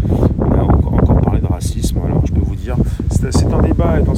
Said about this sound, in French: Donc, alors, si j'ai un petit peu de vent, bah, je vais essayer de le contourner.